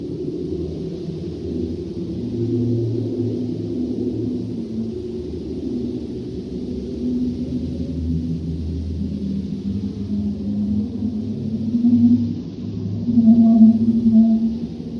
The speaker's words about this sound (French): C'est plutôt un autre type de son et vous allez voir que notre planète est vivante aussi par le bruit qu'elle envoie dans l'espace. Voici le son de la Terre depuis l'espace enregistré par une sonde de la NASA.